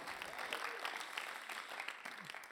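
An audience applauds steadily to welcome a speaker onto the stage, a dense, crackling wash of many hands clapping at once with no pauses, holding an even loudness throughout and faint voices mixed in underneath.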